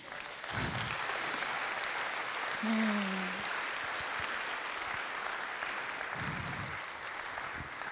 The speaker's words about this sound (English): Can you clap, church?